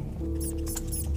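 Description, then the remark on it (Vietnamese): More than one mouse squeaks in quick, high chirps over a soft rustling scurry in a dark house at night, several short bursts against a low steady hum, with no voices. “tiếng lạo xào đã bắt đầu phát ra rõ rệt hơn trong căn nhà tối om”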